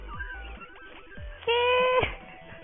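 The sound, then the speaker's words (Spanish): A loud, drawn-out cat meow lasting about half a second, preceded by fainter cries and soft thumps, with a slightly tinny quality like playback from a device; a video of many cats falling is being played. “son muchos gatos cayendo.”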